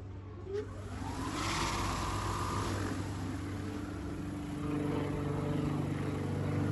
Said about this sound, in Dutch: nee, nee je, hoort in het begin het opstarten van eh, de motor even. En daarna het geluid van de propeller.